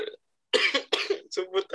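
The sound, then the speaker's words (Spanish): A person coughs, a lingering after-effect of an illness: a short voiced sound, a brief pause, then a rapid run of four harsh, raspy coughs in quick succession, fairly loud and with no talking. “Perdón por la tos, banda, pero el doctor dijo que es una secuela.”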